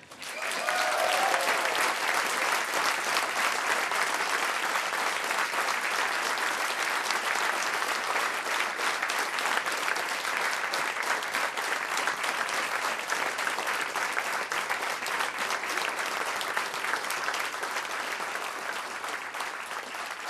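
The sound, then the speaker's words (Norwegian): Sustained audience applause for a man now 80 years old, steady and loud throughout, a dense patter of many hands clapping with no talking over it, tapering only slightly toward the end. “Du fortjener en applaus, du.”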